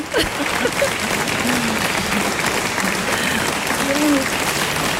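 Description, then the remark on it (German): A concert audience applauds steadily, a dense, continuous wash of clapping at a loud, even level throughout, with a few faint voices calling out underneath. “Das ist Applaus ist immer schön im Moment, ja?”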